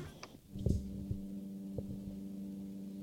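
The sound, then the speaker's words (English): A lawn mower drones steadily as someone mows a lawn, a low, even buzz that holds throughout, with a few soft thumps and no one speaking. “I hear Hold a on, buzzing somewhere. Uh, someone's, like a, someone's mowing the lawn.”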